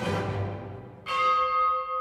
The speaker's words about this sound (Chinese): 这钟声非常的诡异，似乎让我们心里面非常的担忧。